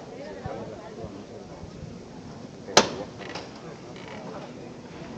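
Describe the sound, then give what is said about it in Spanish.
A single sharp metallic knock from a procession float's knocker (llamador) rings out once, crisp, signalling the bearers to lift the float outside a sanctuary in Jaén, over a steady murmur of crowd noise and voices. “Suena de nuevo el llamador, va a levantarse ya.”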